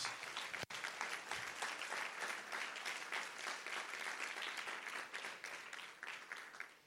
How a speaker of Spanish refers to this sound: En ese lugar es donde tú puedes sacrificar sacrificio de alabanza. Dele un aplauso fuerte al Señor, vamos.